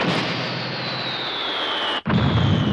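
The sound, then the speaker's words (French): An explosion-like sound effect depicting the Big Bang: a loud, sustained roar fills the sound, with a faint whine slowly sinking in pitch. It cuts out abruptly for a split second near the end, then surges back. No voices. “Il y a 13,8 milliards d'années, le Big Bang.”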